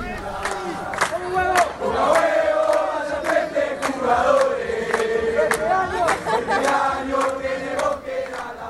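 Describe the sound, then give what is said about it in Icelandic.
A crowd of football fans sings a song together in the Moscow metro on the way to the Iceland–Argentina match, many loud voices holding a melody while sharp claps or stomps break through at irregular moments. “þegar ég heyrði þetta lag sem hljómar hér undir í fyrsta skipti. Þetta var í neðanjæralestakerfinu í Moskvu fyrir tveimur árum”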